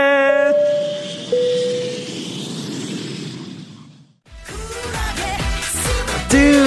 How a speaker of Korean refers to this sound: 자 그럼 비행기 이륙할까요? 갑니다. Let's get it!